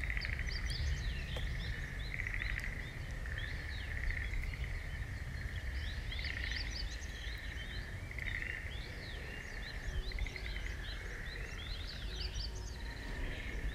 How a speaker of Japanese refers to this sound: ここはね森の音しかほぼ聞こえないあカエル鳴いてる